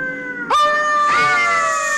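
Several dogs' drawn-out howls overlap in a loud, sustained chorus, one voice sliding upward before they hold steady together, carried on a gentle wind through a gorge at night; no one speaks.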